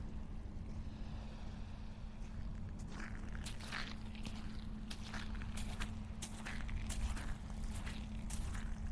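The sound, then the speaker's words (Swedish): Footsteps crunch steadily along an outdoor path by the sea, walking with the sun behind and the sea on the left, a regular walking rhythm of soft scraping steps over a constant low rumble, with no one talking. “Nu går jag med solen i ryggen och havet på min vänstra sida.”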